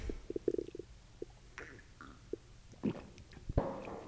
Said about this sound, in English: That was the loudest gulp ever on my behalf.